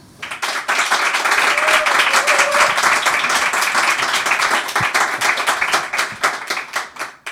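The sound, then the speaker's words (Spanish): The studio audience of the show El hombre que se enamoró de la luna breaks into sustained applause welcoming a journalist guest, many hands clapping densely and steadily for several seconds before it starts to thin out toward the end. “Así que recibimos con este aplauso de nuestro público lunero al periodista”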